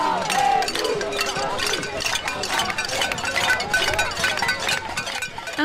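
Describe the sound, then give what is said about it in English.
Protesters bang saucepans at a May Day rally in a dense, continuous clatter of metallic clanks and clinks, overlapping from many sources amid the steady roar of a large outdoor crowd. “there was some pop banging on Monday's May Day rally”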